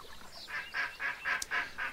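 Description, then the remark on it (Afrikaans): A quick run of about six nasal, honking quacks in steady rhythm, moderately loud, with no talking. “Toe die son ondergaan in die reën gaan mamma eend en haar klein goed terug na hulle huis toe.”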